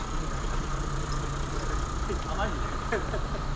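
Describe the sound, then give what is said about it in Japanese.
A steady, low rumble of idling car engines from a row of stopped cars on a street beside the Kamo River fills the scene without a break, with faint voices surfacing briefly toward the end. “あのー、車がずらっと止まってね柄が悪い人たちがこっちを見ながらなんかタバコ吸ってますけどここは何街なんですかね川僕川沿いのね通りですけどね、”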